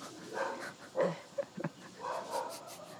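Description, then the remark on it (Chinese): Dogs bark in a few short, irregular bursts, a sharper yelp followed by two quick barks close together, over a steady rustling background with no talking. “这边就是狗狗的天堂。”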